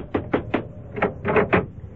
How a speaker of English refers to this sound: Keep on knocking, Lieutenant. I'm sure that woman's there.